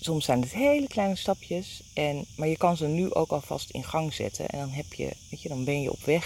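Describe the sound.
Crickets chirp steadily outdoors in a continuous high trill that runs the whole time, fairly faint and partly masked by a person talking close up in the foreground.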